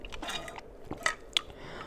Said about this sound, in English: Let me take a sip.